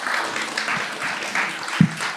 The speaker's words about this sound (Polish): Ja was zapraszam gorąco. Brawa dla nich.